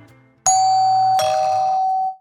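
A two-tone doorbell chime rings out clearly, a bright first note followed by a lower second tone that lingers and fades, loud with no voices present.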